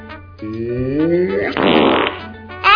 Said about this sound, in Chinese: 骆马的裤子破掉了，这个声音像是打了个超级大的雷一样，震到房子、树、山、地球上的所有东西都在摇晃。这个声音强到连宇宙的黑洞都被震开了。